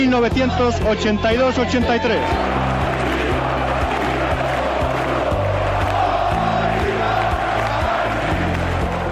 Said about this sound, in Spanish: Un gran ambiente en el aeropuerto, cientos de hinchas esperando ver a sus jugadores que se proclamaron ayer campeones de liga 1982-83.